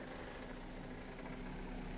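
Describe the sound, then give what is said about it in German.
A car engine idles, a steady low rumble with a constant hum that holds evenly for the whole moment, with no voices over it. “Weil manchmal kommen hier so Autos, Digga, mit irgendwelchen Männern.”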